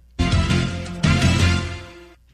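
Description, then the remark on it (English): A short, loud ESPN television sports-network sound logo: two bright, brassy musical hits about a second apart, the second ringing out and fading over roughly a second, with no voices. “Maybe you know this trademark sound here.”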